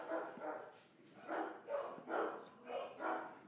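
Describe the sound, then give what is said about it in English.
Household dogs barking in a steady run of about half a dozen short barks, somewhat muffled, with no talking over them. “our dogs are very uh, anti crime.”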